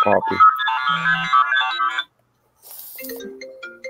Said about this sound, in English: Oh Jesus Christ! Sorry. my phone rings, and then if I ignore it on my phone, it goes to my iPad. I don't know how to stop that from happening.